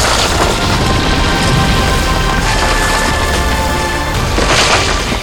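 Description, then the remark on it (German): A thunderous, sustained crash of a hall's roof and walls collapsing after a hammer blow, with deep rumbling booms and splintering wood cracking throughout, loud and dense from start to finish with surges of debris near the end. “Dann schritt Thor mit Loki an seiner Seite aus der Ruine, während drinnen die Riesen brüllten, als Dach und Wände auf sie herabstürzten.”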